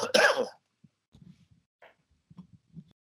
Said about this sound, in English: Uh, sorry about the coughing thing. I'm not sick. I've just had this cough for a long time.